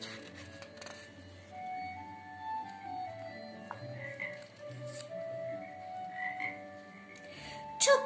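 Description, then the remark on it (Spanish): A toad croaks in a steady series of drawn-out, tonal croaks with faint background noise, ending in a brief louder burst near the end. “Creo que es un elefante disfrazado de cerdo que quiere hacer paseas por sapo”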